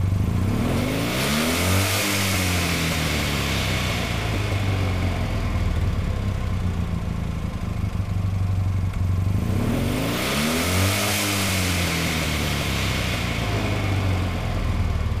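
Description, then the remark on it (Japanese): The small 800cc air-cooled horizontally opposed two-cylinder engine of a Toyota Sports 800 (Yotahachi) revs up sharply twice, each burst rising in pitch and then falling back to a loud, steady idle between them, with no talking. “小さな体に収められた 800cc 空冷水平対向2気筒エンジンのサウンドでした。”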